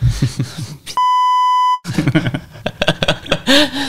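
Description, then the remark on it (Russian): A steady, high censorship bleep of under a second covers swearing in speech, with talking before it and continuing right after. “И они все говорят, начальство там, запикайте.”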